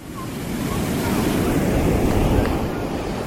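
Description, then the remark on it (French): Beach ambience at Fidjousset beach in Cotonou on 24 December, Christmas Eve, crowded with people sitting on the sand and swimming: a steady, loud wash of surf and wind fills the whole stretch, a broad rumbling roar with no pauses and no clear voices. “La plage de Fidjousset grouille de monde ce 24 décembre, réveillon de Noël des jeunes, des enfants et des personnes un peu plus âgées.”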